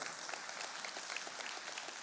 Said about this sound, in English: So you should clap for him.